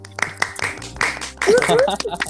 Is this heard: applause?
yes